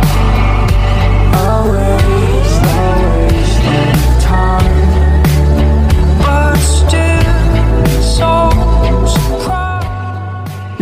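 A song plays loud, with a full, dense band sound and a steady, punchy beat throughout, easing slightly in the last second.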